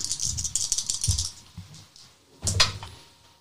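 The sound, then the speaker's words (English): Three dice rattle and clatter across a hard surface in a quick burst, followed by a brief pause and a second shorter tumble, with no voices. “So roll three dice.”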